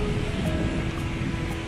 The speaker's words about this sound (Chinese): 这个洋是印度洋半岛，这是印度洋吗？印度洋水，非常大的浪和轰，轰，非常大的浪和风。